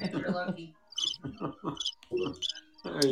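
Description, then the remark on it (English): Short bursts of cricket chirping repeat at a steady pace, mixed with murmuring voices and laughter that sit underneath at moderate volume. “Let's yeah, uh, let's hear some crickets.”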